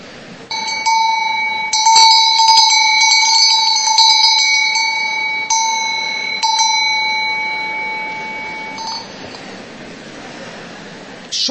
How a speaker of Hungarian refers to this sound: sokkal brutálisabb hangja van ennek a kolompnak, mint gondoltam, vagy mint a gongnak, úgyhogy ezt rendszeresíteni fogjuk a főiskolán.